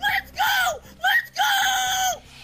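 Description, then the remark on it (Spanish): Loud, excited screaming in several bursts: two short high-pitched shrieks followed by a longer sustained scream, intense, with no speech, as someone discovers an ultra-rare collectible trading card of New England Patriots quarterback Mac Jones. “Esos son los gritos aún más fuertes cuando descubres que se trata de una barajita ultra rara del mariscal de campo de los Patriots de Nueva Inglaterra,”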